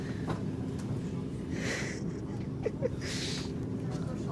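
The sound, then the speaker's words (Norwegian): A train rumbles steadily as it slows toward the red station building in Hamar, with two short hissing bursts of brakes cutting through the low, continuous clatter. “mens toget bremser ned mot den røde stasjonsbygningen i Hamar.”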